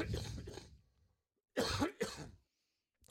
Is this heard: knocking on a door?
no